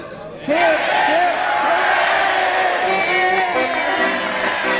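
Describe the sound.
A crowd erupts into loud, rhythmic cheering, repeated hip hip hooray shouts for Ranger Doug rising and falling together, sustained for several seconds.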